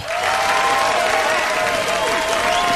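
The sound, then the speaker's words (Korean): Sustained applause from a studio audience gathered for a lecture by star mentors, steady and fairly loud throughout, a dense wash of clapping with a faint tonal element running underneath. “박수를 들어보니까 3만 4천.”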